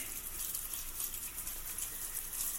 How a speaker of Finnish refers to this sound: Ja nyt otetaan täältä esimerkiksi tota vettä. Tässä on lasia, täällä on hana ja ei muuta kuin hana tuosta päälle.